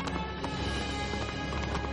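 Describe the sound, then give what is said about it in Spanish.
Hooves of a galloping horse pound in a quick, steady rhythm, fairly loud, over a dense, continuous wash of background sound, with no one talking, as a gunman rides his white horse, Whitey, across a plain, followed by a rider on a black horse. “Cabalga por una llanura. Tras él, un jinete con caballo negro.”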